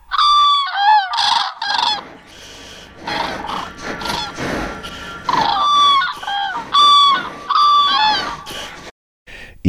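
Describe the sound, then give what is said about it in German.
Loud, harsh calls from large birds ring out in quick bursts, overlapping one another with rolling, trumpeting tones, continuing throughout with only brief pauses and no voices. “Auch kleine Kombinationen hört man wie Krrr, All diese Rufe sowohl am Boden wie im Fluge hervorgebracht.”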